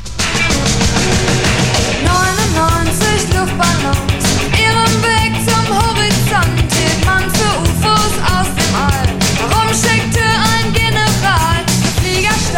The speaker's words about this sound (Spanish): película It, del libro de Stephen King, y cuando estaban publicitando la película usaban esta canción de fondo mientras flotaban globos rojos. Claro. Que son, bueno, lo que, lo que representa al payaso ese diabólico. Mira, escucha el estribillo, ¿eh?